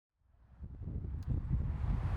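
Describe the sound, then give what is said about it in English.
A dense, continuous roar of traffic on Route 1 (Highway 1) crossing the Golden Gate Bridge in San Francisco, heard from the middle of the bridge, swells up within the first moment and holds steady, heavy in the low end with a rushing, wind-buffeted texture and no voices. “That roar you can hear in the background is the traffic on Route 1, Highway 1, I should say, crossing the Golden Gate.”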